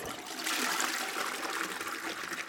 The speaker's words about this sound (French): Or, tirer la chasse d'eau dissémine les bactéries dans l'air.